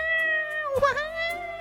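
A loud, high-pitched baby's wail, coming from inside a giant peach just cut in half, rises and wavers for about a second, layered over steady sustained tones, with no talking.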